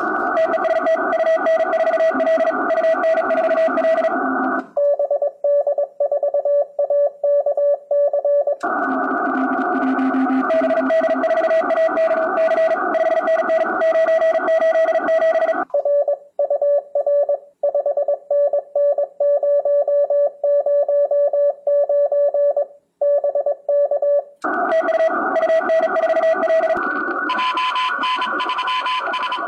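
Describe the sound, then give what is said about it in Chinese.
Radio Morse code signals from a telegraph contest: a steady mid-pitched tone keyed on and off in rapid dots and dashes, at times alone and at times buried under loud hissing, crackling static and overlapping signals; one station calls, another answers with its call sign, and they exchange the number 599. “刚提到了五月份还有发电报的比赛， 对对， 这个感觉真的就是像谍战片了，这个电报码满天飞了。”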